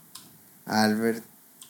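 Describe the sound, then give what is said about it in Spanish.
Two soft, crisp clicks of a computer key being pressed, about a second and a half apart, with a short voiced vocal sound in between. “Se me hace un, un, una, buena, una buena tecla, así que le picas y ya, pum, al vergazo.”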